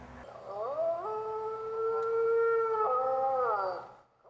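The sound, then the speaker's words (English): An electronic multi-animal toy, influenced by Sony Aibo dogs, that makes sounds but does not move and is no specific animal, lets out a single long howl, rising in pitch, holding steady, then sliding down and fading. It is loud, with no voices. “It doesn't actually move, it just makes sounds, and it's not a specific animal, it's the multi-animal.”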